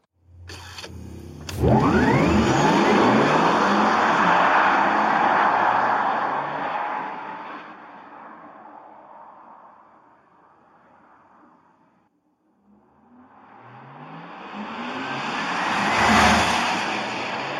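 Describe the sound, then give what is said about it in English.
A synthetic electric sports car sound, an optional add-on sound for the Taycan electric car, swells up in a rising, whooshing sci-fi tone, fades away to near silence, then surges back, peaking loud before settling. No talking. “For $500, you can add an electric sports sound to your 150 to 180,000 plus dollar electric car.”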